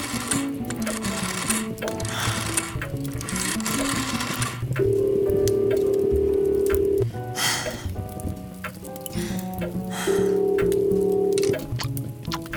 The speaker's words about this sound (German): Ihre Finger zitterten beim Drehen der Wählscheibe. Nahezu hätte sie sich verwählt, dermaßen aufgebracht war sie.